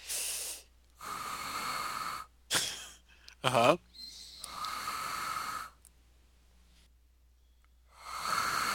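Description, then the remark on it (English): A voice imitates a sound heard in a movie theater during the previews, like the wheezing of a breathing machine: long, loud, hissing breaths drawn in and pushed out in a slow steady rhythm, broken by a laugh and a brief murmured reply. “I think it was some sort of breathing apparatus or something”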